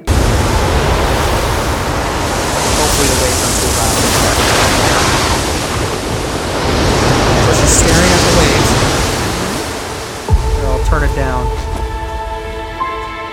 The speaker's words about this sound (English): So anywho, so we have Elsa here confronted with the ocean. The waves are coming at her. Let's check it out and see what she does.